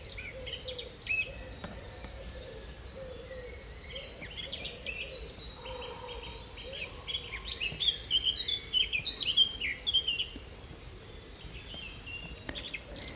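A busy spring dawn-style chorus of many birds singing and chirping at once in an oak woodland in England's West Country, overlapping trills and whistles over a soft outdoor background hiss, with no speech.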